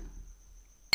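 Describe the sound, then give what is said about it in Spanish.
A single bright, sharp clink of glasses touching in a toast, ringing briefly right at the end after a near-silent moment with only a faint low hum. “Y salud, bro.”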